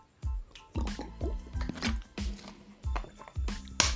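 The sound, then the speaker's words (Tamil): Wet gulping as someone drinks water, a run of about seven swallows and liquid sounds in an uneven rhythm, with no talking. “இப்போ மினிட்ஸ் தண்ணி குடிச்சுக்கிறேன்”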